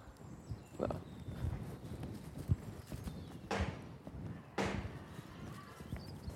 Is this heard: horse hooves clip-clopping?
yes